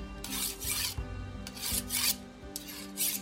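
A dagger blade is drawn across a whetstone in steady, rhythmic strokes, each one a gritty rasping scrape, about six passes repeating at an even pace with no voices.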